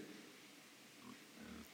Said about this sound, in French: Les cochons vivent à l'intérieur de douze petites porcheries.